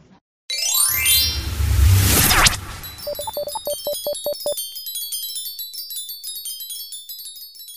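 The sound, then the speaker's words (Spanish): A loud electronic whoosh sweeps upward, followed by a rapid run of short beeping tones and then a bright, twinkling chime pattern that keeps shimmering until the end, an alert for a message arriving on the ship's radio. “Tripulantes, llegó un mensaje de la radio nave.”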